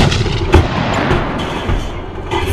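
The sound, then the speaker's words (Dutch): Heavy 120 mm tank cannon fire, loud, with a sharp blast early on and further booms rolling over a dense, continuous low rumble. “Voel je je onwijs machtig als je in zo'n tank rijdt en een kanon bij hebt van 120 mm?”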